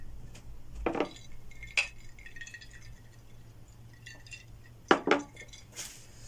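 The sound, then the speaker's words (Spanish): Glasses clink together in a toast, several bright, ringing taps in quick succession with short pauses between, over a low steady hum and soft background murmur. “salud,”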